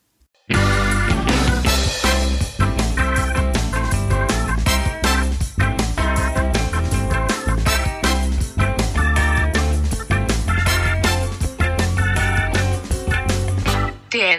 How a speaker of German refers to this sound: Viel Spaß und ich habe hier einen neuen Jingle produziert zusammen mit Siri.